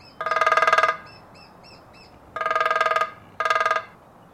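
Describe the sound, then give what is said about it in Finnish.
Three quick rolls of lesser spotted woodpecker drumming, each a rapid burst of taps with a ringing, metallic resonance, the last roll shorter, with faint bird chirps in the pauses. “Moni kaupunkilainen on varmasti kuullut, kun pikkutikka rummuttaa katulampun kupua.”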